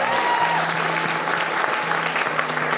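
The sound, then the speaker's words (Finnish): A crowd claps steadily for people who have just decided to follow Jesus, a dense, continuous wash of many hands, loud and sustained throughout with a faint hum underneath. “Annetaan aplodit noille, jotka teki ton päätöksen.”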